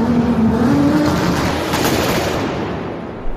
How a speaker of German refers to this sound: Gib Gas, immer. die Leute warten doch. Zündung!